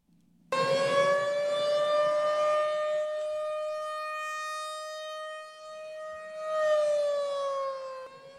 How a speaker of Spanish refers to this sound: Sirena, por favor. Noticia de última hora.